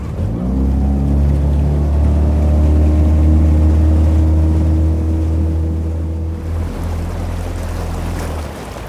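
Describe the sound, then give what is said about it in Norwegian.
A motorboat engine drones loudly and steadily, its hull slapping and splashing over waves with rushing water and wind noise as the boat heads back to land after a trip to gather mussels; the engine note drops slightly toward the end. “Turen går derfor tilbake til land uten ett eneste skjell.”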